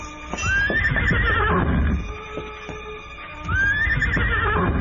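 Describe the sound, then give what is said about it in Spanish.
A horse whinnies loudly twice, near the start and again near the end, with rhythmic hoof clops and shuffling in between and no talking: the supposed horse of Arrechaval entering the patio of the house at eight o'clock. “Y fue precisamente aquella hora cuando el muchacho oyó el relincho y los cascos del supuesto caballo de Arrechaval entrando al patio de la casa.”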